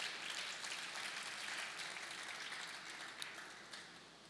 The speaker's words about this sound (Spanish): ¿Cuánto le dan un aplauso a la palabra de Dios?